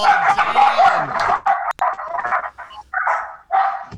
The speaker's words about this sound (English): Yeah what was that? That was all Lindsay's dogs. Oh. Yeah, sorry, they went crazy.